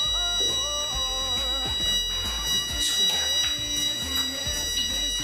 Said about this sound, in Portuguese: Eu acho que cá nós temos um problema, pá. Alarme.